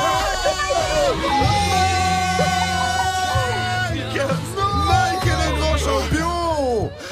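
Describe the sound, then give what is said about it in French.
A loud, busy commotion of several people shouting and yelling over one another, with hurried running footsteps mixed into the steady crowd noise throughout. “J'entends des cris, j'entends des bruits de pas.”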